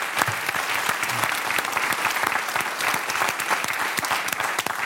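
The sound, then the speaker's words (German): A steady wash of audience applause, many hands clapping densely and evenly at a fairly loud level for the whole stretch, with no voices standing out. “Das heißt, Dein Applaus.”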